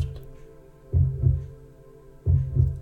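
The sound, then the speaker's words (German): A slow heartbeat thumps twice in deep lub-dub pairs, about a second and a half apart, over a steady low droning hum. No voices are heard. “Ich nenne es den Herzschlag des kosmischen Herzens.”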